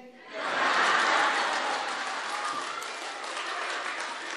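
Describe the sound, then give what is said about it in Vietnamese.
Sustained audience applause: a dense wash of many hands clapping that swells quickly in the first half second, then holds steady and loud for several seconds with no talk over it. “thấy viện vỗ tay quá trời luôn”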